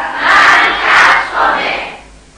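An audience at a seminar shouts the affirmation 'I have shoes on' together in loud unison, three strong rhythmic bursts swelling and fading over a couple of seconds.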